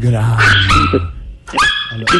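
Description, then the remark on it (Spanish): A dog barks loudly in a few sharp bursts, with a voice speaking underneath and between the barks. “Coño, alguien puede callar el perro, que estoy hablando con Colombia.”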